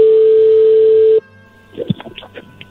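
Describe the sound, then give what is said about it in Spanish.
A phone call connecting: a loud, steady telephone tone holds for over a second, cuts off abruptly, then quiet line noise with faint clicks and brief muffled sounds follows. “A ver, ahí entró la llamada.”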